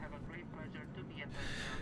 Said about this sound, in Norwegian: Som du hører, så er ikke denne episoden av Røverradioen spilt inn i fengsel. Akkurat dette er naturligvis spilt inn på et fly, og det flyet er på vei til Israel.